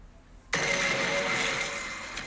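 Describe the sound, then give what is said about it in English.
Uneasy synth music bursts in abruptly after a brief quiet moment, a loud, dense droning tone with steady buzzing overtones that holds on and eases off only slightly. “But uh, that one is uneasy synth music playing.”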